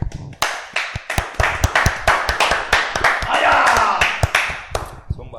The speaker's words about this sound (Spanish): Aplausos, aplausos. Vamos a agregar los aplausos.